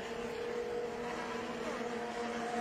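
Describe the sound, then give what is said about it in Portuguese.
A stock race car driven by Evandro Camargo drones steadily, its tone shifting slightly partway through as it passes along the track at Velotitar in the Mogi Guaçu region, setting a lap of 1:54.1, the best lap of the race, with no voices. “E o Evandro Camargo já passa virando 1,54-1.”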